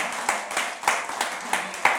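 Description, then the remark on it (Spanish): An audience, asked to give applause to God, applauds: a dense, steady patter of many hands clapping together, with sharper individual claps punching through at irregular moments. No one speaks over it. “Denle un aplauso a Dios porque Dios nos está hablando en este día.”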